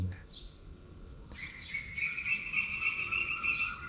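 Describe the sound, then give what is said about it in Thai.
Birds chirp in a quick, steady series of bright, high notes over a continuous thin trill, fairly soft, with no voices present. “เสียงธรรมชาติก็เหมือนกัน เสียงธรรมก็เหมือนกัน เสียงนกก็เหมือนกัน ไม่ยินดียินร้ายก็เป็นแค่ปรากฏการณ์”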